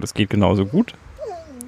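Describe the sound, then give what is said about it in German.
A person speaks briefly, then a dog gives a soft, drawn-out whine with a rising and falling pitch, quieter than the voice and heard on its own after the talking stops. “Das ist der Hund, hallo.”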